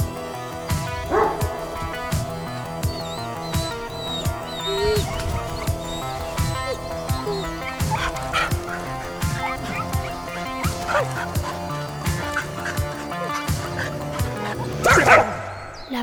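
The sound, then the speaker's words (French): A pack of 30 hunting dogs barks and yelps at once while tracking Actaeon through the woods, a dense, overlapping chorus, a continuous excited din with sharp yips cutting through, loud throughout. “En tout, il y a 30 chiens. Ils se mettent tous à traquer Actéon à travers les bois.”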